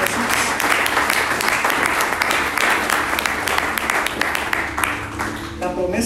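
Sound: audience applauding loudly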